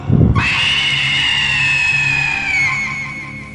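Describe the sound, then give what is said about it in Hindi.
A brief low thud gives way to a loud, shrill, witch-like shriek from a witch standing on a hut's roof, holding for about three seconds and slowly sliding down in pitch. It comes alone, with no talking. “और उस झोपड़ी की छत पर वो डायन खड़े होकर उनका इंतजार कर रही थी उन्हें देखते ही वो हंसने लगी और जोर से चीख उठी”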